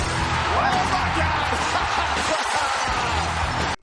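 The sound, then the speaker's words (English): Loud glass shatters in a dense, sustained burst of crashing noise, with a roaring wash of sound underneath, lasting a few seconds before cutting off abruptly, signalling Stone Cold Steve Austin's entrance at WrestleMania. “I've just heard some glass shattering.”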